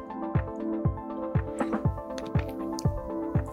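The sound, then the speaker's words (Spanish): Someone gulps water in a steady series of about seven swallows, roughly two per second, fairly quiet over a faint sustained tonal hum. “Estoy tomando agua, perdón.”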